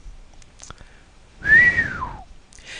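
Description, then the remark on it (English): A bearded repairman whistles one drawn-out note that rises slightly and then slides downward, an impressed whistle at an imposingly large TV set on a wheeled table. It sounds clear, with a few faint clicks and quiet room noise before it. “The bearded repairman whistled.”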